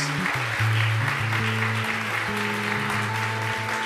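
audience applauding

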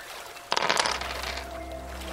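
dice being rolled

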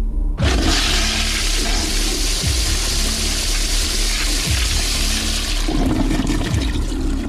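toilet flush sound effect

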